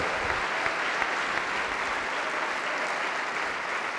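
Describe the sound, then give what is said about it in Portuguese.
A crowd applauds steadily to the Lord Jesus for each person coming forward, a dense wash of many hands clapping at once, sustained and fairly loud for the whole stretch with no voices standing out. “E vamos aplaudir ao Senhor Jesus por cada vida que está chegando.”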